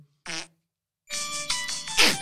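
A short synthetic fart noise from a pressable Santa Claus toy, followed by a brighter, longer burst of electronic jingling and buzzy tones, loud with no voices.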